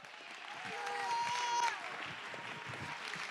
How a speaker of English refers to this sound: Oh, let's clap our hands. Oh, let's get excited.